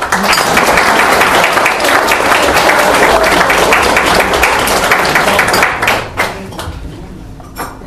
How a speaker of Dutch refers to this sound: Dus ik zou u willen vragen om deze toast met applaus eh, te ondersteunen. Op de medewerkers van het schild.